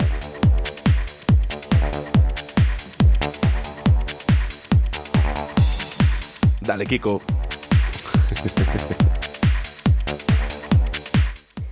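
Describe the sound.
An energetic dance remix pounds along with a steady four-on-the-floor kick and sustained synth chords, loud and upfront, while a man briefly calls out over the music midway.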